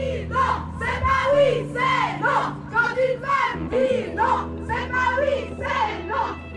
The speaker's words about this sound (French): Ces slogans que vous venez d'entendre et tous ceux qui vont suivre, je les ai enregistrés lors du 1er mai à Lausanne. Les femmes défilaient en tête du cortège des travailleurs avec de grandes banderoles violettes.